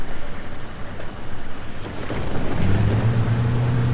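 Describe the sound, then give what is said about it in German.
A bus engine runs rough while being driven, with a rattling, lawnmower-like drone, a steady low rumble that settles into a louder humming tone partway through, continuous with no one talking. “Der Bus fährt sich auch extrem schlecht und hört sich an wie ein Rasenmäher.”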